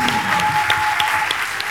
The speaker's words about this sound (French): Euh, merci, on peut les applaudir très fort.